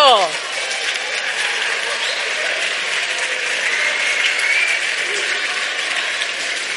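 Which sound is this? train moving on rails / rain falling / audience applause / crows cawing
audience applause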